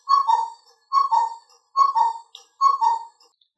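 A cuckoo clock sounds four times in a steady rhythm, each call a clear two-note "cu-coo" dropping from higher to lower pitch, heard alone with no talking.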